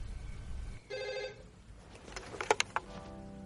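A telephone in a hotel room rings once in a short, buzzy electronic burst, then a few sharp clicks and clatters follow, like a receiver being handled, with a soft hum underneath and no voices.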